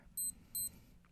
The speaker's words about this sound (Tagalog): Kunin ang orasan. Mag-set ng alarm.